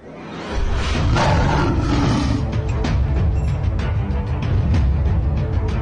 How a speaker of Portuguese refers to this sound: Tem um leão, né, Carol? E ele tá cercado de hienas.